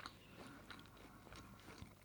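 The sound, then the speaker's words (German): Quiet chewing and swallowing of food, with a steady run of soft crunchy bites and wet mouth sounds over about two seconds and no talking. “Ich schlucke noch.”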